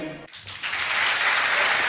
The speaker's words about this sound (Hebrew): כן, מחיאות הכפיים למיקי קם